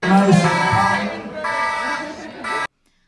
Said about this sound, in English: Tell me why, in the middle of Cassady and Cooper's panel, the fucking smoke alarm go off, y'all.